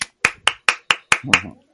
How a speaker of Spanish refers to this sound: No, suena, solo como un aplauso, ese ruido sin contexto, ¿eh? No sé por qué.